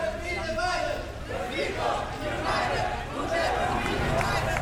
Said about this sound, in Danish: har gået igennem Indre København indtil videre i et ret roligt tempo med en god stemning, kampråb og høj musik, og nu bevæger vi os stødt hen imod Christiansborg.